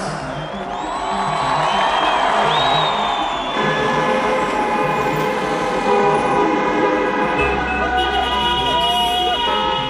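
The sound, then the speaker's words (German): Many car horns honk at once in a busy street to celebrate someone winning an election, long overlapping blasts sounding continuously over a loud, dense crowd din, with no clear pauses. “Die hupen ja nicht nach einem Fußballspiel, sondern die hupen, weil jemand eine Wahl gewonnen hat”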